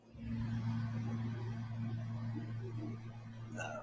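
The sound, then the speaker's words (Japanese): A steady, low electrical hum from a refrigerator drones continuously at moderate loudness, with faint background rustle and a brief higher-pitched sound near the end. “それでは聞いてください。冷蔵庫のブーンという音。”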